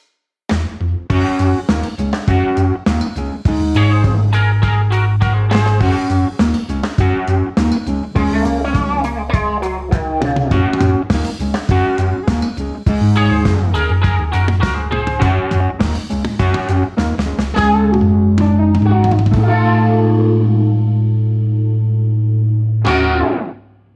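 An instrumental intro jingle plays loud and steady with effected, distorted-sounding tones and a bouncy melodic line over a sustained bass, ending on a held chord that cuts off abruptly. No voices.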